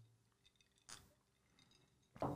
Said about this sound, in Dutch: Neem gerust een slokje. Ik ook.